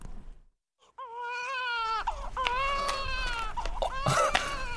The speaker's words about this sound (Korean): 아, 아기 울음소리가 아니냐 어찌 된 것이냐 아기가 태어난 것이냐? 주상 전하, 기뻐하시옵소서.